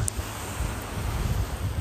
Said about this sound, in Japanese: いやちょっと波の音うるさすぎるかもなちょっと離れよう